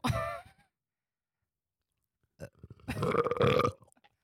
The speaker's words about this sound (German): und von Sprite muss man ja so eklig rübsen. Jetzt erzwinge es nicht. Ein Schluck und ich muss direkt rübsen.